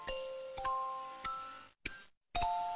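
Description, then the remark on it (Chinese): A school bell rings for the end of class, chiming five times in a steady sequence, each bright, ringing tone lingering and fading before the next, with a short silent gap near the end and no voices. “这时，叮铃铃铃铃的下课铃声响了。”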